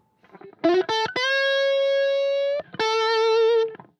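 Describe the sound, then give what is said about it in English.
Distorted electric guitar playing a lead solo, a few quick choppy notes followed by two held bends, none of them very long sustained notes, loud with a gritty effects-laden tone and no voices. “And you listen to this, um, his solo on this, you know, he has some long notes, but none of none of them are like terribly long sustain notes.”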